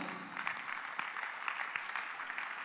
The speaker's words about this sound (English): Clap your hands for the Lord.